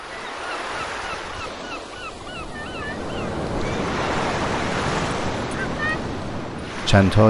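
Sea waves wash steadily onto a beach in a continuous, swelling roar, with seagulls screeching over the surf and a brief clatter near the end.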